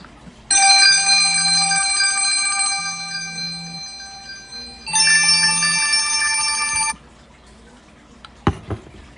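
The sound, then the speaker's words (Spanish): A telephone rings with a loud, bright bell-like trill in two long bursts, the second shorter, then quiet background noise and a couple of faint knocks. “espérate un momentico busco un teléfono porque estoy grabando algo, espérate, espérate.”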